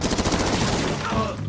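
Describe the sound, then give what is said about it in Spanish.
Rapid bursts of gunfire and machine-gun fire from a crime drama about the modern mafia in London crackle in a fast, dense rhythm, loud, blending into a chaotic wash of noise over a second and a half. “Entre disparos, muertes violentas, disparos”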